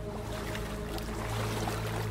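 Water sloshing and lapping steadily in an enclosed, echoing space, with a continuous low rumble underneath and no pauses or voices.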